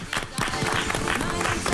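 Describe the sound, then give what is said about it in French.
An audience breaks into steady applause, a dense wash of many hands clapping at once, fairly loud and sustained through the short stretch with no voices standing out. “On applaudit Maison du Monde.”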